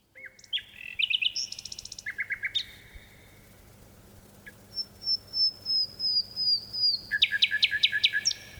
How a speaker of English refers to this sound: We leave you this week with a bird noted for its beautiful singing, the nightingale. This nightingale song echoes across a deep valley in Dorset, England, and a tawny owl joins in.